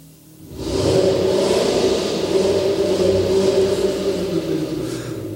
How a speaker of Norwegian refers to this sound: Nå starter jeg opp eh, noen biler her. Det er ikke Hilux. Nei.